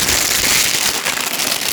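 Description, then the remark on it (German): A chip bag is deliberately crumpled right against the microphone, producing a loud, continuous burst of dense, sharp crinkling and crackling that lasts nearly two seconds, with no voices. “Er hat original absichtlich die Tüte gerade genau am Mikrofon zusammenge...”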